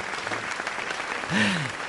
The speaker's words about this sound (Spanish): Qué bonito, ¿eh? Qué bonito. Gracias. El aplauso para el artista es, eh, es lo máximo, ¿no? Eh, al final es eh, esa la recompensa ¿no? que tiene el artista.